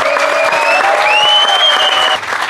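Steady audience applause, a dense wash of many hands clapping at an even loudness throughout, with a few faint whistles or cheers rising over it.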